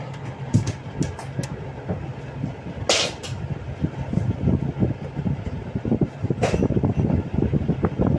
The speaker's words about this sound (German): dann ähm, musst du mit dem Handy mhm. einmal vor die Klimaanlage halten und anmachen.